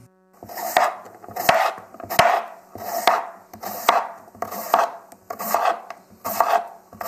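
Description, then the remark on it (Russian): A knife cuts two carrots, about 200 grams, into large chunks of about 3-4 centimetres, with a steady rhythm of about nine crunchy strokes, each ending in a sharp knock on a cutting board. No one speaks. “Две морковки, около 200 грамм. Нарезать крупными кусочками около 3-4 сантиметров.”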